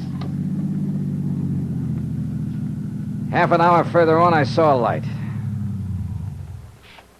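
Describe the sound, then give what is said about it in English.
A car engine drones steadily at low pitch, driving along a road on a three-hour drive to Lake Watika. A man speaks briefly over it midway, and the engine noise fades out toward the end. “It was a three hour drive to Lake Watika, which was bad enough.”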